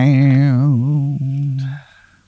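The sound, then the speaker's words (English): A voice imitates a guitar riff, singing a wavering, vibrato-laden melodic phrase that slides downward, then holds a lower note before trailing off with a brief breathy tail. “so uh, you you go upstairs and uh, you lay down into your bed, and right before you fall asleep, you hear like a a guitar riff, be like and”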